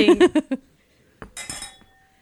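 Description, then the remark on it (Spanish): A brief voiced sound comes first, then glasses clink together in a toast: a sharp tap followed by a bright, ringing shimmer that quickly fades into quiet. “chin por favor.”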